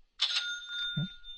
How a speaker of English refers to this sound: That's the sound of cash, folks. oh, I amuse myself with sound effects, don't I?